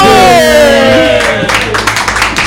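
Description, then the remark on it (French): A small group of studio guests, members of the show's own team, applaud themselves in a quick, uneven patter that starts about halfway through, coming in as a sustained musical tone fades away. No voices are heard. “bizarre de s'applaudir soi-même.”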